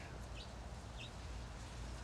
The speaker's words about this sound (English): You hear those birds? Some of those are leaving for the winter. It's that time of year.